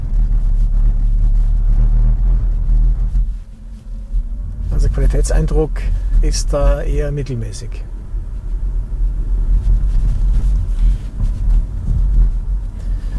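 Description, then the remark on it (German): A continuous low, booming rumble from the car's suspension fills its interior as it drives over uneven cobblestones, steady and loud throughout, with a man speaking briefly partway through. “Also wenn es uneben wird, dann kann es echt laut werden. Gerade hier so auf Kopfsteinpflaster.”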